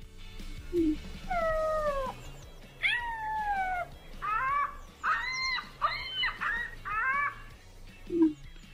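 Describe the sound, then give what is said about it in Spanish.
A recording of ostrich calls: a series of about six loud, wavering, downward-sliding cries in quick succession, heard alone over a low background rumble, with a couple of short yelps at the start and end. “te voy a poner la avestruz para que hagas un sus.”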